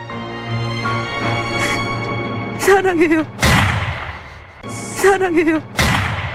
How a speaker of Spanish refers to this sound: Ok, hay un disparo después. Sí, porque matan a uno. Eh, spoiler lo, que escucharon es de una serie de televisión que fue transmitida en el año 2019 hasta 2020.